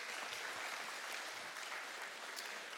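A crowd applauds steadily, many hands clapping together in a dense, continuous patter that stays at an even level throughout, with no voices standing out.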